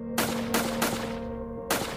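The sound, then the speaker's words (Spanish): Four loud gunshots ring out at irregular intervals, three in quick succession and a fourth after a pause. Each sharp blast trails off, with a steady background hum between them. “Él, un salvaje que solo sabía dar tiros.”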